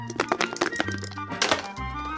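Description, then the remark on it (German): Two dice are rolled across the board of a new board game, clattering in a quick burst of sharp, hard clicks and taps that bounce irregularly before settling into quiet after about a second and a half; the roll totals seven. “Zwei Würfel.”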